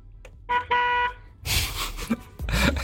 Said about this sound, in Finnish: Ja onko käsi jo valmiina? Mulla on käsi valmiina töötillä. Onko sulla lähtölaskenta valmiina? 5, 4, 3, 2, 1.